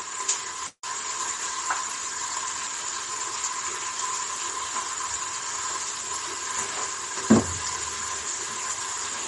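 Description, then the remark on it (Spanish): Steady, crackling sizzle of food frying in hot oil in a pasta pot, continuous, with a brief clunk of utensil or pot near the end and no talking. “Entonces yo en la olla donde cuezo la pasta, la boco, la pongo un poco ahí en el calor para que se pierda el agua, añado el aceite y ya frío ahí y hago la comida ahí.”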